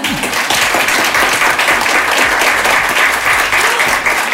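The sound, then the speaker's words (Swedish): An audience applauds steadily, a dense, sustained wash of many hands clapping at an even loudness for several seconds, with no one speaking over it. “Jag tycker vi tar en applåd för det.”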